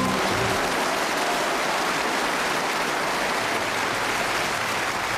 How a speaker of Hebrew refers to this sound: וזה כבר הקהל שהצטרף אלייך בסוף השיר, ואמר לי שעדיין את מרגישה צמרמורת כן, כשאת שומעת שאני את ה... שומעת את זה.